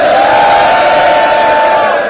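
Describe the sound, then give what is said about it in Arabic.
A large crowd shouts "Ya Husayn" together in one loud, sustained collective cry, voices blended into a dense roar that holds steady without a break. “الإمام زين العابدين يقول ترى الحزن على الحسين لا نهاية له يعني إلى يوم القيامة أنت بتسمع صرخة يا حسين”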